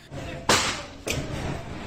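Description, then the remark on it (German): Police force in the front door of a local DVB broadcaster reporter's home in Myanmar at night: two loud crashing blows about half a second apart, each with a sharp splintering burst that trails off into a low background murmur. “Ich sagte doch, dass ich komme ruft der Reporter des lokalen Senders DVB, als Polizisten die Haustür einschlagen.”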